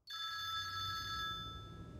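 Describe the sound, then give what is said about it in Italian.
A telephone in a house rings loudly with a bright, sustained electronic trill that lasts about a second before fading out. There is no speech, only a low background hum. “L'altro giorno è suonato il telefono.”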